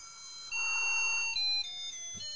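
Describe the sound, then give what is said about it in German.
An appliance, after water has been filled into it, plays a tinny single-tone sound-chip version of a song, its beeping notes stepping from pitch to pitch in a short, clear tune with no one talking over it. “sondern es ist auch noch so eine furchtbare Einton-Soundchip-Version.”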